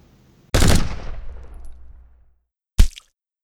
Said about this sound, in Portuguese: Houve o estrondo do disparo.